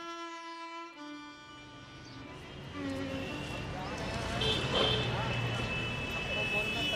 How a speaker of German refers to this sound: New Delhi, Ring Road. Sicher 100 Verkehrsteilnehmer warten vor der Ampel auf das Grünsignal. Busse, Taxen, LKWs, Motorroller, Pferdekarren und Autos sind derart ineinander verkeilt, dass keine Lücke auszumachen ist.